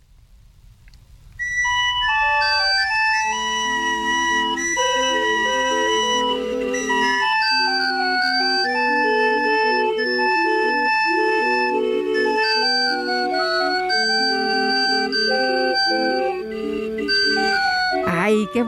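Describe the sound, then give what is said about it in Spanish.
A barrel organ plays a bright, steady melody over a sustained low drone, starting after a brief quiet moment and continuing loud and unbroken to the end, with no voices. “El gobierno de la Ciudad de México informó que del 19 al 21 de mayo se va a llevar a cabo el primer festival de organilleros”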